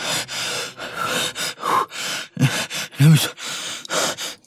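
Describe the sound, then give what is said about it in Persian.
Rapid, ragged gasps and heavy panting follow one another with barely a pause, loud, a few sharp strained inhalations standing out from the steady labored breathing, from a person having a panic attack. “نفس نفسم بالا”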